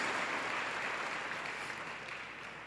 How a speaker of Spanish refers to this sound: Da un aplauso al Señor.